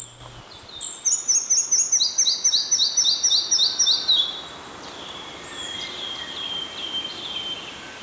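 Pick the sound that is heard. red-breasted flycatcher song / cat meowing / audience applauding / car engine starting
red-breasted flycatcher song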